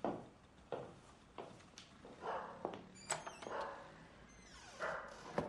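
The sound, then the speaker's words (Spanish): A dog barks repeatedly in short, uneven bursts, some sharp and some more drawn out, with faint thumps and background noise between the barks. “Cuando no es la perra de la hija, es el perro”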